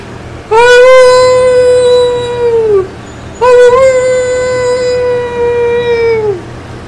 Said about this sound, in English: And by the sound of it, they were pretty close to a pack of wolves.